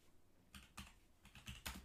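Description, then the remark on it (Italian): Quick bursts of typing on a computer keyboard, a few clustered keystroke groups with short pauses between them, fairly quiet with no one talking. “La prossima volta, se sei bravo, ti do anche la tastiera.”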